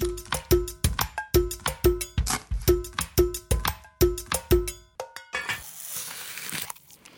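Someone crunches into an apple and chews, a rapid run of crisp, loud crunches in quick bursts, ending in a longer rough grinding crunch. No one speaks.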